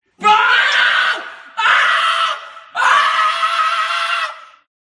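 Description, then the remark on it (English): Three loud, shrill screams in quick succession, each about a second long and the last one drawn out longest, with a faint reverberant tail trailing off after each burst. “And then the scream too.”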